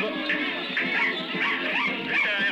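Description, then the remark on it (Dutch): A dog named Pip whimpers and lets out short, high yips in a nervous, restless stream, fairly loud, with no talking over it. “Als hij een hond hoort, begint hij ook zenuwachtig mee te snuffelen.”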